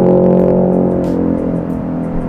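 A loud motorcycle engine drones with a steady, buzzing hum that eases slightly as it moves past, with no voices.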